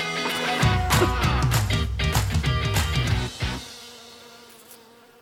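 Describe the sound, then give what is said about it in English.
A dense, loud buzzing of a honeybee swarm starts abruptly, swells for about three seconds, then drops away into a fainter lingering hum. No one speaks. “the whole swarm, which might be uh, 10,000 bees, disappears and moves into the new spot.”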